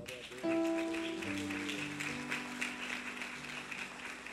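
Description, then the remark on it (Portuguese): A church audience breaks into steady applause to God during a sermon, with sustained keyboard chords ringing out underneath and shifting to lower notes as the clapping continues. “Você não vai aplaudir a Deus, não?”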